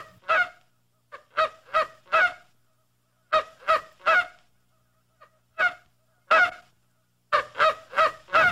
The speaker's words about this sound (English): A condor, known as the largest bird in the world. Cue condor sound effect.